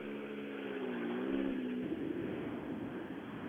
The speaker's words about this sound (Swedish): Eh, det är fantastiskt för att jag hör bilarna ute på skogen här fast jag ser och det brummar lite borta vid tekon eh, utav bilar som står där. Men man hör hur det vrålar ute i skogen. Man hör långt här.